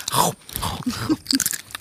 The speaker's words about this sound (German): Alle snacken gerade. Jeder knuspert gerade mit so Mikrofon.